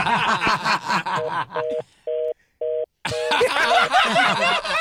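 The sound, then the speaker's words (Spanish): A few short, clear telephone keypad tones beep in a quick sequence as a number is dialed again, during a brief pause, framed by lively voices and laughter before and after. “Vamos a marcar otra, vez, otra vez, otra vez.”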